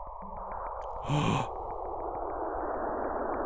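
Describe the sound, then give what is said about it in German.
Sonified radio emissions from Saturn and one of its moons: a steady, eerie rushing hiss with faint rhythmic ticking pulses, swelling into a brief breathy whoosh near the start. No voices. “Das ist der Sound, den der Saturn macht, wenn er mit einem seiner Monde kommuniziert.”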